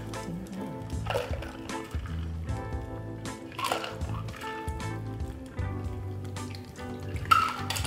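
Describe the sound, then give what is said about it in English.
A blueberry cocktail, the Thieves Staycation, shaken with ice, trickles and splashes as it is double strained through a fine strainer into a glass to keep out the blueberry skins, a steady wet pour with intermittent squishy bursts over a low background hum. “And I'm gonna double strain it just so we don't have the blueberry skins in the cocktail.”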